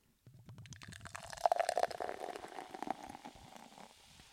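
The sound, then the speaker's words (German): A bottle of ginger beer is opened and poured into a glass, glugging, the pour's pitch rising as it fills, with carbonated fizzing and crackle continuing underneath. No voices. “Wundert euch nicht, das war jetzt kein Bier, sondern das ist Gingerbier.”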